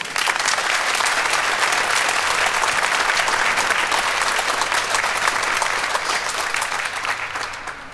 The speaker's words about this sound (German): Wir freuen uns sehr, dass der Sportvorstand von Schalke 04 uns zugeschaltet ist. Äh, schönen Gruß aus München und dicken Applaus für Peter Knebel.